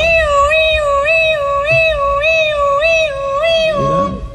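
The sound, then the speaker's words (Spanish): A voice imitates an ambulance siren: one loud, unbroken wail whose pitch rises and dips in a steady cycle about seven times before trailing off. No other talking. “Una ambulancia pasaba.”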